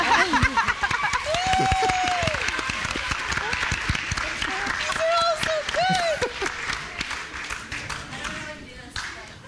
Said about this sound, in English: Let's get let's get the clapping going, guys, since we don't have the.